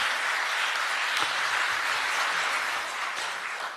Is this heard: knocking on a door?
no